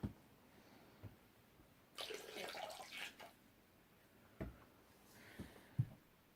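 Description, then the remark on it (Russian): A brief, splashy trickle of wine poured into a basin of water with sea salt, lasting about a second, followed by a few soft knocks and small clinks. “Берете соль, сыпьте сюда, вот в этот тазик с водой, емкость, морская соль, вино”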